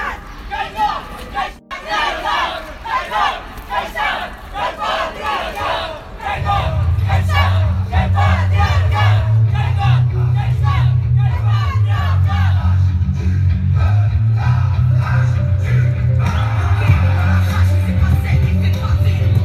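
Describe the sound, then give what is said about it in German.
A protest crowd of many voices chants and shouts in a steady, dense hubbub in front of the Köpi, with scattered claps as people watch a performance. Partway through, a loud low rumble like an idling engine joins and continues beneath the crowd. “das ist auch nochmal eine Atmosphäre von vor der Köpi gerade.”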